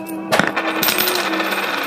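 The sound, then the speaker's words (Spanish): Coins clink and jingle as they're handed to a blacksmith in payment, a bright metallic rattle with a sharp clatter near the start followed by lighter scattered chinks, fairly loud, with no voices. “Toma estas monedas.”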